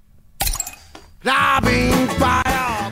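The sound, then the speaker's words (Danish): Drinking glasses clink together as someone picks them up to take along: a couple of sharp knocks, then a louder stretch of ringing, rattling glass. “Jeg har, jeg tager nogle glas med.”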